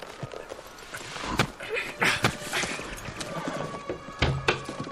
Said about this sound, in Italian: Un cavallo. Non può che essere il suo. Occhio.